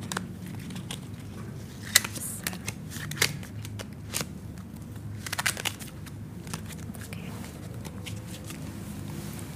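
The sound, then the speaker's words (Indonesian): A deck of cards is shuffled before five cards are drawn, with soft papery flicks and brief crisp riffling bursts coming in irregular clusters over a low background hum, with no one talking. “Itu diacak terus nanti diambil lima kartu.”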